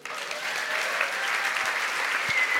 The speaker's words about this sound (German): Und ich glaube, nur schon für das haben sie einen Applaus verdient.